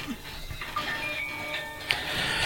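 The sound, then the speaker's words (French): A mobile phone that was not put in airplane mode rings with a thin electronic melody of high, sustained tones, fairly faint against a low background rumble, with a brief click near the end. “un oubli de mettre son téléphone en mode avion de notre ami Bernard euh, qui corrige le tir immédiatement”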